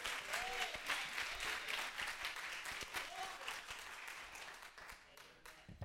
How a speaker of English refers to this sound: Can I get everybody to clap those hands like they've never clapped before?